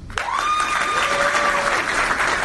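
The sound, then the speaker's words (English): An audience breaks into steady applause to show who will buy the Nintendo Switch, a dense wash of clapping that stays loud throughout, with a few whistles rising over it near the start. “So, who here, honestly, uh, by applause, who will buy this?”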